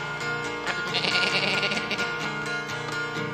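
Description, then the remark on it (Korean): A human voice imitates a goat's bleat, a wavering, nasal "meh" held for a few seconds, fairly loud with a shaky vibrato, with no other talk around it. “배나무 밑엔 염소가”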